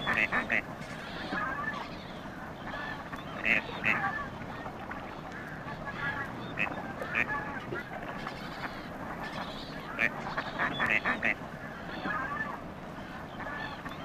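Gadwall ducks calling repeatedly, short nasal quacks and croaks coming in bursts from several birds over a steady outdoor background hiss.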